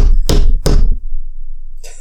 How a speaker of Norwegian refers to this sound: jeg slo i bordet for å skape støy.